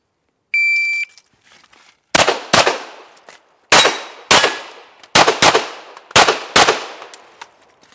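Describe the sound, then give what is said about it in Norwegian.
A short electronic beep, then eight sharp, loud pistol shots fired mostly in quick pairs with brief pauses between, each crack trailing off in a ringing decay. A woman shoots at shooting-range targets, aiming to knock them all down as fast as possible while an electronic timer measures each shot. No one speaks. “for det gjelder å komme seg gjennom løypa, få skutt ned alle blinkene så fort som mulig.”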